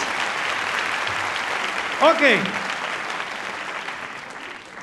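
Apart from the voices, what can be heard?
audience applause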